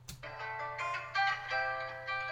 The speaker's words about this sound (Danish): jeg har samlet en guitar fra noget, der hedder Splice, som lyder sådan her.